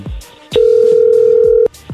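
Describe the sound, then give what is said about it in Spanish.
A telephone line tone while redialing a number: one steady, mid-pitched electronic beep holding for about a second, framed by a few soft thumps and clicks, with no one speaking. “hay que marcarle de nuevo. Márquele, márquele, márquele.”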